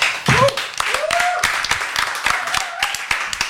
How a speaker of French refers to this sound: Alors, euh, nos premiers invités, vous pouvez les applaudir,